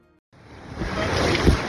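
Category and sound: nature, rushing river rapids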